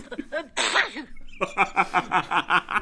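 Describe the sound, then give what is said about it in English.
A loud, sharp sneeze sound effect from Google Assistant, after its joke about fish and pepper water, bursts out near the start, followed after a short pause by a run of rhythmic, pulsing laughter that carries on to the end. “Why do fish live in salt water? Because pepper water makes them sneeze.”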